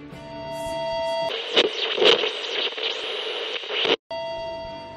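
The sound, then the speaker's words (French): A short, intense, loud and dense hardcore punk track with a harsh wall of distorted guitars bursting in after a brief buzzing intro, cutting out abruptly for a split second before resuming. “Ok, bon voilà, c'était un titre assez court euh, et, intense. Voilà, c'est pas non plus le truc des plus bourrins en hardcore qu'on peut écouter.”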